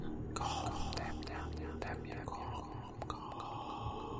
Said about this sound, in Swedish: Och när du gör det så kan du höra de här viskningarna igen.